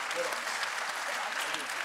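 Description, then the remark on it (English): An audience claps steadily and densely for a couple of seconds for a group just introduced, a continuous wash of applause with a few voices cheering faintly underneath. “Where's the cheering? Come on. Aren't you proud of this group?”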